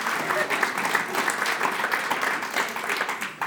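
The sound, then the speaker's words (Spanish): Thin, scattered applause from a church audience during a sermon, responding to a declaration about God; a modest patter of hands that holds steady for a few seconds at moderate volume, heard alone without talking. “Esa declaración de Dios es fulminante ese aplauso débil.”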